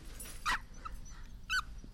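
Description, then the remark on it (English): A hybrid-breed dog spinning around lets out two sharp, high barks roughly a second apart, over a low steady background rumble with no one talking. “The dog spun around in elliptical patterns motivated by a need to bark at anything that moved.”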